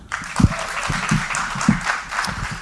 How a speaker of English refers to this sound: Round of applause.